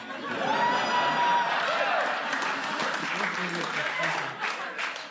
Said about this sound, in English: Yeah. I've also been intuitive, and I, I know forced applause when I hear it. Yep. Was, uh, you could tell I wanted that. It was worse than getting it or, uh, organically or not getting it.